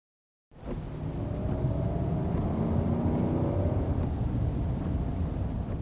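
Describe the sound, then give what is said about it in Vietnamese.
A car engine roars into a loud, steady drone with a rising whine as it picks up speed, heavy low rumble filling the background, with no voices. “Xe đi càng nhanh, tiếng động cơ nghe càng lớn.”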